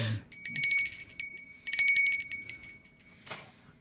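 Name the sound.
small bell ringing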